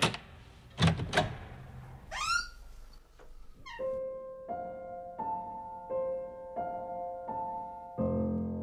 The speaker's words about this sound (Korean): 아빠 그 방에 들어갈 때 문이 좀 빡빡해요. 탁 하고 열면